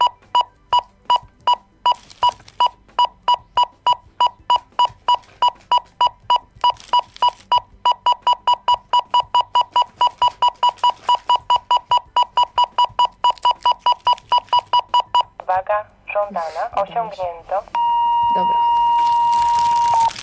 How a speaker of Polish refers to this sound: A już się obawiałem, że wybuchnie. Nie, nie, nie. Przeciążyłam to troszeczkę, w sensie tą y, wagę żądaną i tak piszczał. E, OK. I już to wyłączyłam.